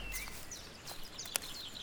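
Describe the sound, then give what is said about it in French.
Birds sing softly in the morning, a scatter of high thin chirps and trills overlapping, with one sharper click partway through and no voices. “Le bleu de la nuit s'étiole dans la brume et les oiseaux chantent le matin.”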